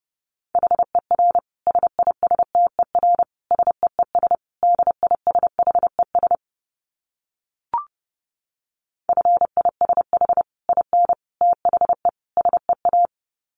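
Fast Morse code at about 30 words per minute, a steady mid-pitched tone keyed into quick dits and dahs, with a brief pause and a soft click midway before the sending resumes.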